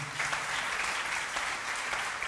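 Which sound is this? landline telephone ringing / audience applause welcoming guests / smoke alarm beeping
audience applause welcoming guests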